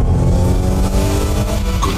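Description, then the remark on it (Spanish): A Mazda CX-60 plug-in hybrid SUV engine revs loudly, a steady throaty roar with rising harmonic tones, filling the whole moment with no voices. “Prepárate para sentir la potencia de sus motores”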